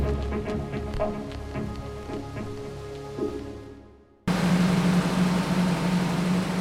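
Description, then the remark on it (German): A newspaper printing press runs with steady mechanical clatter and rhythmic clicks, fading out, then giving way abruptly to a loud, constant machine roar with a low hum. “In der alten Welt der menschlichen Autoren und lauten Maschinen wird das nächste Exemplar der Zeitung aus der Druckerpresse genommen und geprüft.”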